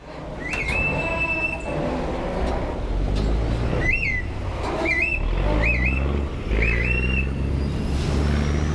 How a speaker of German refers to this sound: Beim Eindampfen in die Achterspringen fährt das Boot hier in Bangkok vermeintlich an der Ponton-Plattform, wo die Passagiere warten, vorbei.